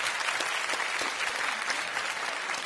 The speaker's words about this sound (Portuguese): O que, vocês estão aplaudindo? Fui perdoado, Eu não sei né, que vocês estão aplaudindo.